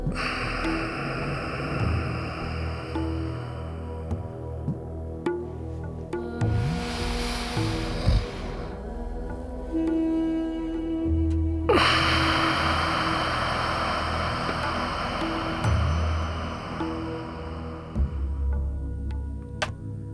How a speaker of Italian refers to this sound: Un respiro profondo, non un piccolo respiro, come se non ci fosse più ossigeno nel mondo, devi fare l'ultimo grandissimo respiro, ok? Respira proprio bene, in modo totale. Cominciamo. Riempi completamente i polmoni e poi espira.